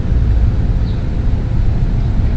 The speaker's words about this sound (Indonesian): helikopter yeah. lewat juga kedengeran ini.